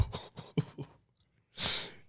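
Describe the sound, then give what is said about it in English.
A few quick breathy bursts, then a brief silence and one sharp, loud, airy intake of breath, with no talking. “He gasped.”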